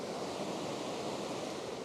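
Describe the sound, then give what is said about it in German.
Rushing river water pouring over a weir in the Harz, a river lined with old brick buildings; a steady, dense roar of white water that holds constant throughout, with no voices. “Am schönsten war jetzt hier wirklich das Ende, wo wir stehen. Das hörte ihr ja auch. Ich drehe mich mal kurz Richtung Rausche.”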